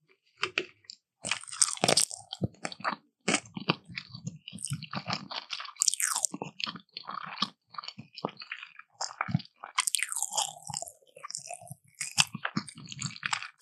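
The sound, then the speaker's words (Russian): Someone eating sushi rolls topped with eel, with loud, wet crunchy chewing and repeated bites going on steadily with brief pauses, and no talking. “Ты роллы ешь?”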